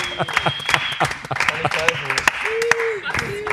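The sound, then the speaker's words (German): A crowd applauds the 2019 German champions with dense, irregular clapping that runs the whole time, while voices call out and talk loudly over it. “also an der Stelle ein Riesenapplaus an ja. die Deutschen Meister 2019.”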